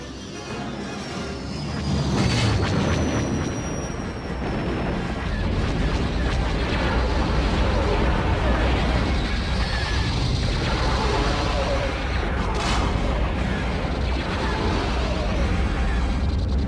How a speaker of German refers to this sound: Hier kann man es jetzt noch nicht so gut hören, weil die Schüsse so laut sind.